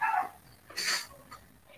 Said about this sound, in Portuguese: Tem um cachorro. Alguém tá com um cachorro gritando. Calma aí, já volto.